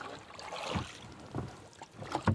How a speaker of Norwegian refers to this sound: Under vann står nå husene til innbyggerne i Nybergsund ved Trysilvassdraget i Hedmark. De ror til inngangsdøra.